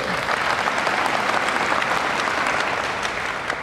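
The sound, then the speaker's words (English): Steady, sustained applause from an audience, a dense wash of many hands clapping at an even loudness throughout with no voices rising above it. “You can, you can retract those applause after I say what I'm about to say.”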